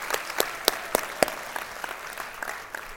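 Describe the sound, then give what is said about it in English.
Scattered audience applause thanking the worship team, with distinct, sharp claps from a modest crowd, strongest at first and thinning out over a few seconds; no one speaks. “Um, can we give one last thank you to the worship team?”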